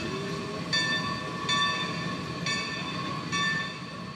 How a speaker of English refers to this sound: The all-wheel drive Shay locomotive was designed for the roughest mountain duty under the worst possible conditions. The antique locomotives that tourists ride at the Cass Scenic Railroad State Park are among the few remaining anywhere.